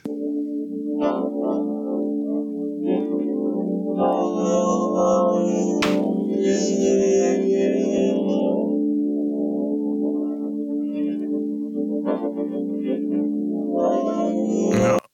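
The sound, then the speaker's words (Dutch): A murky, garbled reconstruction of a rock song, rebuilt from one patient's brain recordings: smeared, warbling tones hold a steady droning pitch, with hissy bursts on top, continuous and fairly loud for about fifteen seconds with no talking. “Ik heb er zelf nog niet gehad, maar dit is dus ehm, de reconstructie op basis van één patiënt.”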